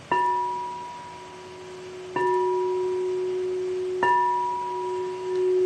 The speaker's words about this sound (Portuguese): Eu trouxe até o cristal, a tigela de cristal que está aqui do ladinho. Vocês ouvem direito? Vamos ver se vocês ouvem legal para ver se vale a pena tocar. Ó.